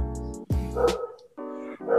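A dog barks outside in a quick series of about four sharp, tonal barks with a short yelp among them, clear and fairly loud, with no talking over them.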